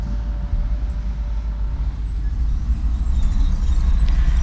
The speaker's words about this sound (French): Un autre bus d'intérim est arrivé. Les hommes qui en sont sortis se sont dirigés vers nous, ont formé un groupe de 60 hommes.